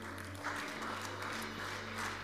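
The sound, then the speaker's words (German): An audience claps steadily, a dense, even wash of many hands applauding throughout without pause, fairly loud and with no talking over it. “Jetzt lass mal Applaus geben.”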